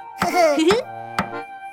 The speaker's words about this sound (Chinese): 咚咚咚，这时又传来了敲门声。是谁来了呢？